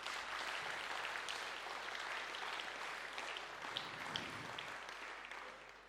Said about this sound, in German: Ihr dürft euch wieder setzen. Dankeschön. Ein Applaus für die beiden.